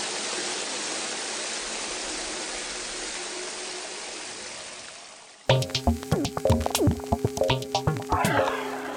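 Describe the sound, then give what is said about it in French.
Steady rushing water fills the first half, then gives way to a lively run of rhythmic, hollow slaps and splashes of aquatic percussion in a water concerto, like hands drumming on a water surface, fairly loud. “Des percussions aquatiques pour ce water concerto que m'a conseillé Alefto”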